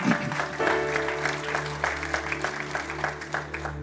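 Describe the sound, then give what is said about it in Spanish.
An audience claps loudly and steadily for the Lord, a dense rattle of many hands with irregular sharp peaks, sustained over a low continuous hum for a few seconds. “Denle un aplauso fuerte al Señor porque Él es bueno.”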